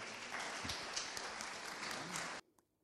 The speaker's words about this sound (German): Herzlichen Dank und ich glaube, das kann man mit einem Applaus bekräftigen.